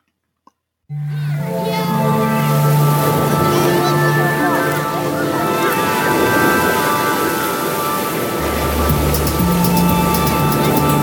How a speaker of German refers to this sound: Sind das eigentlich die Wellen von Hawaii, die du da eingefangen hast